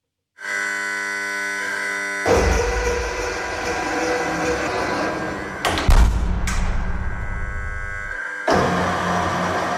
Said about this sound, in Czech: Otevřela se automatická ocelová vrata do pevnosti Hanička.